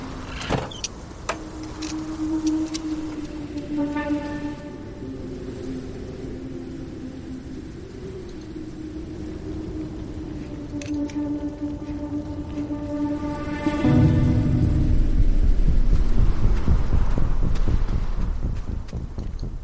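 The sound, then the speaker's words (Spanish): Trailer audio for a video game sequel due in 2021 plays with no talking: sustained mechanical whirring and droning tones with a cinematic feel, swelling into a louder, deeper rumble in the final few seconds. “Se nos enseñaba tráiler eh, de la secuela de Hello Neighbor eh, para 2021”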